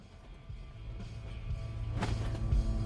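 vehicle, car interior

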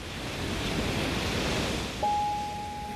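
nature, ocean waves breaking

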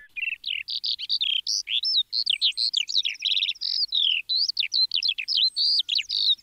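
bird, lark singing

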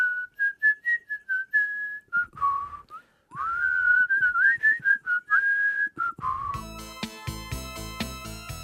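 human body sound, person whistling a melody

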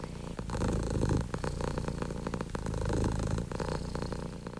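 animal, domestic cat purring

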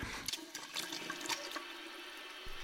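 household object, water running

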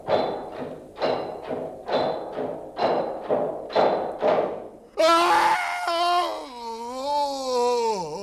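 impact, knocking

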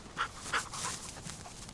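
animal, dog panting

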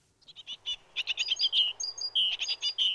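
bird, great tit song

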